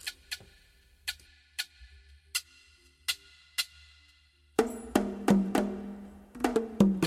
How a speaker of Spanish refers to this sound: es lo que los brasileños llaman el reco-reco y que se le dice eh, en Cuba el guiro, eh, que es una calabaza de alguna manera con una serie de ranuras que se toca con un palito y que suena más o menos así, todos lo conocemos.